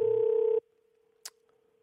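A telephone ringing tone as a radio show host calls a listener: a loud, steady mid-pitched buzz lasts about half a second, then cuts off, leaving a faint lingering tone and a single brief click.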